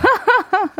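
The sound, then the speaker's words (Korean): A quick series of four short, honking nasal snorts from a large, blocked nose, fairly loud, each a voiced, rising-then-falling burst with no talking around them. “아, 이 코가 이렇게 한 번 막히면 이런 소리가 납니다.”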